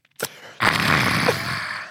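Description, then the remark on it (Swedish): A person imitates a man on a train sipping coffee: a sip followed by a long, satisfied breathy exhale, a short slurp-like burst and then a drawn-out, fairly loud 'ahh' lasting over a second. “Jag satt bredvid en kille på tåget som gjorde, gjorde det här. Tar en klunk och bara”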